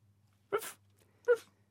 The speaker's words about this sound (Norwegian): hund bjeffer.